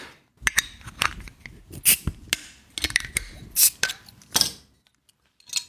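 A bottle of Kolbitzer Pilz beer being opened: a string of sharp clicks and bright glassy, metallic clinks in an irregular rhythm, fairly loud, with no voices, then trailing off into quiet.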